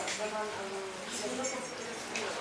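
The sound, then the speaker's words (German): A steady murmur of many overlapping voices from an audience fills a room during a question session, with no single speaker standing out, continuous and fairly loud throughout. “Tut mir, ich, ich bitte um Ruhe. Hier ist eine Frage und weil es so laut ist, kommt gar nichts durch.”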